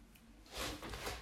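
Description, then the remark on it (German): A soft, sticky peeling sound of a person's legs pulling away from a chair seat they are stuck to, a brief crackly rasp that swells and fades over about a second, fairly quiet. “Entschuldigung, mein, meine Beine kleben am Stuhl.”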